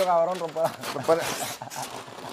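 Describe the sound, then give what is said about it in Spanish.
Gift wrapping paper rips and crinkles in quick, scratchy bursts, starting under a brief spoken voice and continuing on its own after the talking stops. “yo soy de los que me, me molesta muchísimo los papeles de regalo.”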